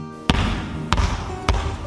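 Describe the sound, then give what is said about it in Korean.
A boy bounces a basketball three times in a steady rhythm, each bounce a sharp, loud thump with a brief ringing tail, with no talking. “농구공을 튀기며 비장한 목소리로 말하더군요.”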